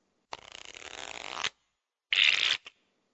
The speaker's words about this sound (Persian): فرض کنید یه نفر دسته کارتا رو بر میزنه و اونها رو بین چهار بازیکن تقسیم میکنه به طوری که 13 کارت گیر هر بازیکن میاد